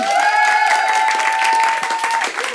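An audience cheers and claps loudly and steadily for a couple of seconds, with a sustained high tone running through the noise before it fades slightly at the end.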